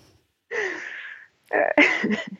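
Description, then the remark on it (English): A dog, a 15-pound mutt from the pound (a Chihuahua and Papillon mix), snores: one long, raspy breath, then a short pause and a rougher, snorting burst. No one speaks. “My dog is snoring.”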